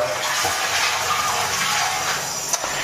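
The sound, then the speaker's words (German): Shower water runs in a steady, even hiss, unbroken for the whole stretch, with a faint brief tap or splash near the end and no voices. “Jetzt also ein Dusch-Podcast mit Lockhart-Filter.”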